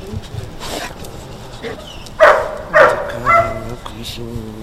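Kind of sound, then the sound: animal, dog barking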